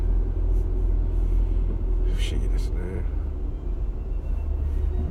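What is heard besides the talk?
car interior rumble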